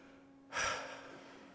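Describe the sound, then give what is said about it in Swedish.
A single deep, audible breath, taken together by a speaker and the gathered listeners, drawn in sharply and then slowly released, fairly loud, with no talking around it. “Men eh, jag kommer att vilja göra det och jag vill eh, försöka ta mitt andetag och vi kan väl göra det tillsammans.”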